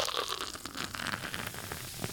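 Ice cubes poured into a glass: a dense, steady rattle of many quick, bright clinks and crackles running for about two seconds, with no voices.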